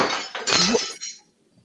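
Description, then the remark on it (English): A champagne glass shatters with a sharp, bright crash, glass fragments tinkling and scattering for about a second before fading into near silence, with no voices. “Yeah, the whole champagne glass dead.”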